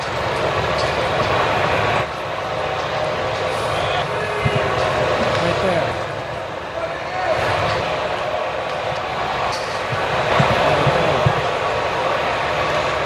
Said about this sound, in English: So they go to their archive of Wrigley games, whatever they have, and they grab some Wrigley specific sounds. I think there was a vendor in there, it might have been a specific fan in there.